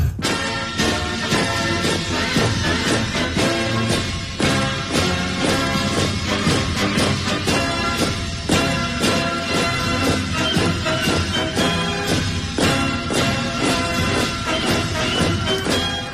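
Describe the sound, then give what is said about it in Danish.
Nazi soldiers marching, their boots striking in loud, steady unison, a regular rhythmic pounding that keeps on for the whole stretch within a dense, continuous wash of sound. No one speaks. “Jeg tror, vi trænger til at høre nogle øh, nazister, der marcherer.”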